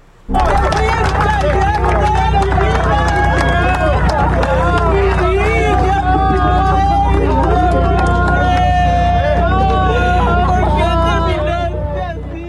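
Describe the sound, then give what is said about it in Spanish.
Relatives, likely the mother and sisters, wail and sob loudly together at a young woman's funeral in Francisco R. Murguía, Zacatecas, Mexico, overlapping in long, wavering cries that go on without pause, with a steady low hum and crowd murmur underneath. “No sé usted, pero a mí me conmueve oír los llantos, pues seguramente de su madre, de sus hermanas que estaban llorando la muerte de una joven”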